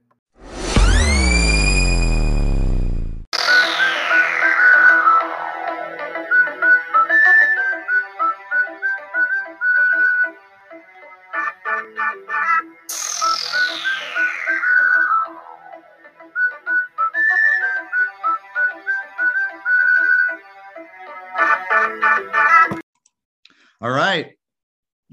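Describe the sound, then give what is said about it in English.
A short electronic theme tune, the Derek Leininger theme music: a rising synth swoosh opens into chirpy, rhythmic bleeps and whistle-like tones, with falling pitch sweeps, ending in a quick warbling flourish. “Cue the Derek Leininger theme music.”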